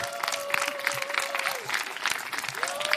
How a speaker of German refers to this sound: Ja, Applaus, Applaus, West.